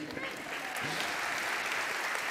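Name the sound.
audience applause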